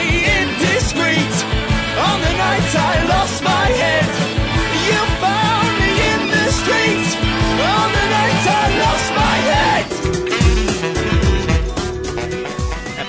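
A loud, dense rock song with full band and strained, shouted-sounding vocals riding over driving guitars and drums, steady and energetic for the whole stretch.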